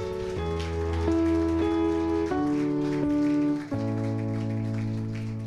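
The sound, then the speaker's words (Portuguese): An audience at a church worship service applauds God steadily, a dense wash of clapping that holds for several seconds over sustained keyboard chords shifting underneath. “Você pode aplaudir a Ele mais forte.”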